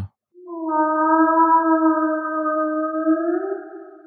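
A long, steady tonal call with rich harmonics, believed to be a whale, heard from water where the depth gauge read 8.1 meters; it holds for nearly four seconds, bending slightly upward near the end. It sounds alone, fairly loud, with no talking.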